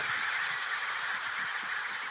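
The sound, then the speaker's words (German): A dense chorus of chattering animal calls in Antarctica, many honking, squawking voices overlapping continuously at steady volume, like a large crowded colony, with no one speaking. “Und damit es ihnen auch weiterhin gut geht, dass sie auch in Zukunft hier leben können und fröhlich schnattern, dafür sorgen die Forscher, die ich hier kennenlernen durfte.”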